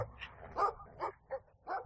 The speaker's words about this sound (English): Here we have a very angry dog that's trying to attack the brothers.